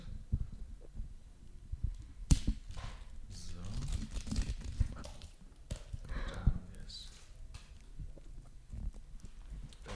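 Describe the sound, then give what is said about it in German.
Crisp crinkling and rustling as the small plastic wrapper of a fortune cookie is torn open and handled, with irregular crackly bursts throughout and a voice murmuring faintly at times. “Es raschelt, es knistert.”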